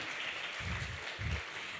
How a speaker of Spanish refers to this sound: Adivinaron si este era el momento para aplaudir